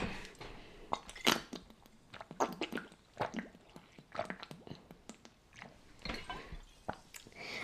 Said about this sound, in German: Boah, ich muss nur ganz kurz was trinken. Bin gleich wieder da.